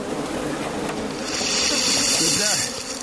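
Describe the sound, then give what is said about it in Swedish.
A swarm of bees, jerked from a branch, drops into a plastic tub: a grainy rushing swell builds mid-clip like rice poured into a bowl, then fades back into a steady noisy background. “Med ett ljud som påminner om när man häller ris i en bunke så släpper bisvärmen och ramlar ner i plastbaljan.”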